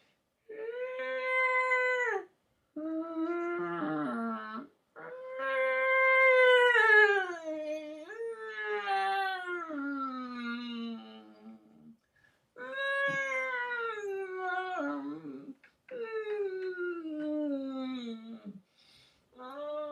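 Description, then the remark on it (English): A human voice imitates whale song with long, wavering, moaning calls that rise and fall in pitch, repeated in several drawn-out phrases with short pauses, fairly loud, without any spoken words. “You know, having a couple drinks, and, and, um, and one of the whales, one of the whales went.”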